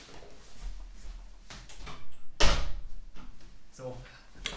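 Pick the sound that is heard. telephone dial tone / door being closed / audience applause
door being closed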